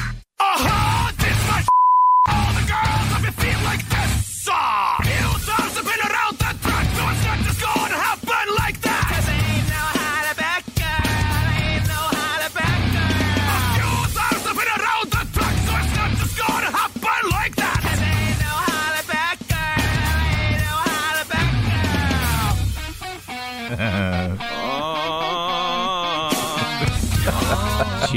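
A loud metal-style cover of a pop song: dense distorted guitars and drums with harsh, shouted vocals, playing continuously after a short beep tone at the very start.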